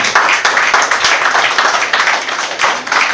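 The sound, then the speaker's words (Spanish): A church audience breaks into sustained applause for God, the King of Glory, during a sermon, a dense crackle of many hands clapping at once, loud and steady for a few seconds with no one speaking over it. “Den un aplauso al Rey de Gloria, al Eterno, al Santo.”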